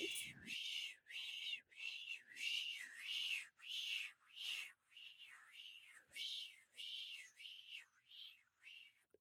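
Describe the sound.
A voice imitates a tape rewinding: a steady run of quick, breathy whooshing bursts, about sixteen in a row, fairly soft, with no talking.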